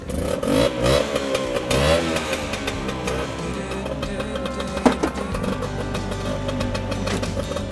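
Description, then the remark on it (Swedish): A Vespa scooter engine is started and sputters and revs, its pitch rising and falling in uneven bursts with a rattly, buzzing tone, then settling into a steady idle. “Vi får se om den startar. Vi får höra hur den låter.”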